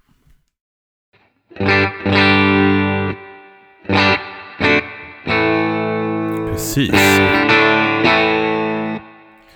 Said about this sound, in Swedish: Och vi kör ju naturligtvis med tysk-telen och eh, Universal Audio Dream-pedalen. Precis, hur låter det då? Det låter så här.